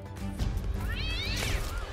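A kitten gives a single high, thin meow that rises and falls in pitch, heard clearly over a steady low background hum.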